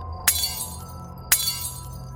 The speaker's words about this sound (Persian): دارن تموم شیشا رو خورد میکنن